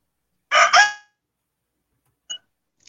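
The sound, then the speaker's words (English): A rooster lets out a single short, loud, clear crow, followed by near silence and one faint little chirp a moment later. No one speaks. “Please excuse the rooster.”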